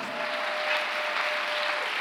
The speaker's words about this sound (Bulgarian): О, ако ръкопляскаш, ръкопляскай, като че наистина вярваш в това, което проповядвам. Ако ръкопляскаш, викай, като че наистина вярваш.